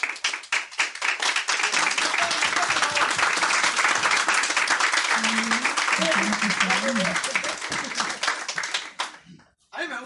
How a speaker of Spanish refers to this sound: Un aplauso, por favor